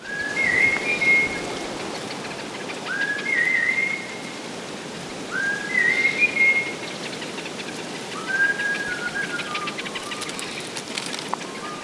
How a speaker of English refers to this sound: But when a member of the Hadza community in Tanzania goes out walking and makes this special whistle